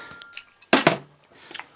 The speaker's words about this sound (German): Fahrradschrauber, auch wenn du es vielleicht nicht glauben möchtest, ich kann dich bis in die Leseecke kauen hören. Das lenkt mich von meiner Arbeit ab.